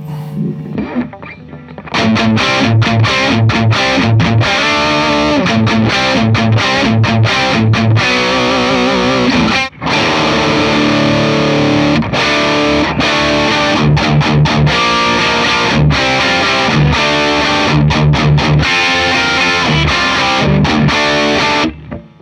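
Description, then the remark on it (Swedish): Heavily distorted electric guitar played through a distortion pedal, with the amp's presence turned fully up, plays loud, sustained chords and riffs with a fizzy, saturated tone and bright crunch, continuous for about twenty seconds after a brief quieter start. “Ännu mer fräs.”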